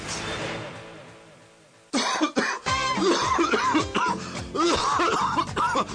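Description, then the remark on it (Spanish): A person coughs hard and repeatedly, a smoker's rough, raspy fit of several harsh bursts, following a faint fading tail of music or noise. “Oiga, ¿usted sabe que es bueno para tos? Para esa tos, mijito, dejar de fumar.”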